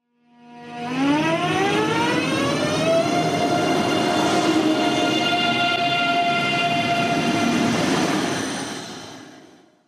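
A high-speed electric train pulls away from a standstill, its motor hum rising in a steady upward whine before leveling into a sustained tonal drone, loud and close with rumbling underneath.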